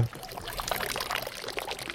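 Someone vomits into a bucket partly filled with water, a steady gushing splash of liquid pouring in for about two seconds, fairly loud, with no talking.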